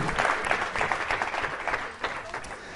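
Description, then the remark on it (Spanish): An audience applauds steadily for a few seconds, a dense, sustained patter of many hands clapping at once, fairly loud, with a slight dip near the end. “Dale un aplauso, ponte en pie y vamos a orar.”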